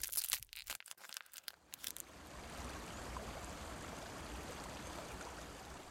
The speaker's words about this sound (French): Ici, je regarde l'eau de la rivière flotter sur les roches et sonner une douce mélodie.